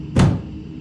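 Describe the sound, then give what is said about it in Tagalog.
A door slams shut with a single loud, heavy bang that has a deep low thud, then quickly fades into a quiet background hum. “Napipikit na ako nang biglang magsara ang pinto na parabang ibinagsak ito ng malakas.”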